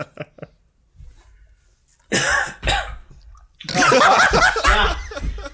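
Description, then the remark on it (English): A man coughs hard several times in a row after his first sip of a Monster energy drink, loud, with sputtering, harsh bursts that grow into a longer fit of coughing, broken by brief pauses. “It sounds like yeah, he's taking like his first right.”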